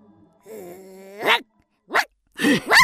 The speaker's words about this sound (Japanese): なんで犬か脅かしやがるやべえぜ行こうなんでだよこいつはまだほんの子犬だぜ